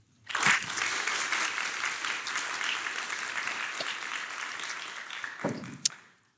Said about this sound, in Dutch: Geef er een hartelijk applaus.